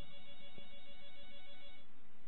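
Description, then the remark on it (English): A faint telephone ring tone over a call line as hosts try to get a coach back on the line, one steady tone held for the whole stretch, thin and muffled as if heard through a phone connection, with no talking. “It's ringing over here.”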